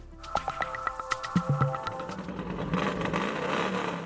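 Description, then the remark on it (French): Dozens of Harley-Davidson motorcycles ridden by Libyan bikers in leather in Benghazi, Libya, rev loudly, with a rapid string of sharp backfire pops over the first half, then settling into a sustained, rumbling roar of many bikes together. “le reportage commence dans une symphonie de pétarades quand des dizaines de motards libyens, tout de cuir”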